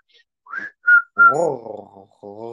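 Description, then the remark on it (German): A person whistles three short, bright chirping notes, then makes a warbling, purring vocal sound, imitating the whistling and purring sounds of a made-up creature language, clear. “Also bei Flausche spricht man auch nicht in Buchstaben, sondern man gibt Pfeiflaute von sich.”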